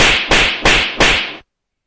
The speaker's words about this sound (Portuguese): Nossa, Nossa senhora, mas isso, não, é, isso é um chicote.